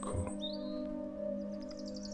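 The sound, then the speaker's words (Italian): Birds chirp in quick high bursts in a forest, with a rising whistle early and a rapid series of chirps near the end, over a steady low hum. “Ascolta la musica del bosco e respira la sua vita.”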